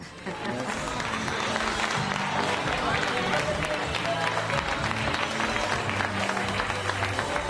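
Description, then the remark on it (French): Sustained applause from a large studio audience, dense steady clapping filling the whole stretch at a loud, even level, with a faint murmur of voices mixed underneath. “tous ces applaudissements sont pour toi.”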